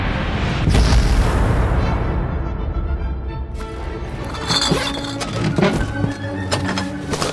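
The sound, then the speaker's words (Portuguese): A loud cannon blast, aimed at the edges of a magical portal to contain it, opens with a deep boom, then gives way to a sustained roaring rumble with scattered crackles and sharp impacts. No one speaks. “Direcionem o fluxo do canhão para as bordas. Vamos domar esse portal.”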